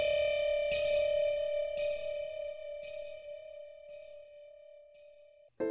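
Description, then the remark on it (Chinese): An electronic time-announcement chime from a management office sounds a steady, bright mid-pitched tone, re-struck about four times at roughly one-second intervals and slowly fading, then cut off by a brief abrupt burst at the end. “这时，耳边出现了一种管理室电子报时的钟声”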